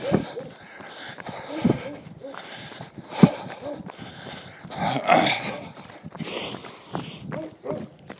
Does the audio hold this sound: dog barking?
yes